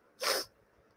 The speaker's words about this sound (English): Sorry to sneeze.